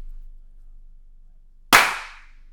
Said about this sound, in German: Nein, du brauchst nur einen Klatscher. Du hast doch auf beiden den Ausschlag drauf.